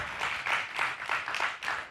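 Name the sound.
hand clapping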